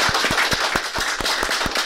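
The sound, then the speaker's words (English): An audience applauds after a speech, a dense crackling wash of many hands with a few sharp, loud individual claps popping out at a quick, regular beat. No one speaks. “Listen to that applause, man.”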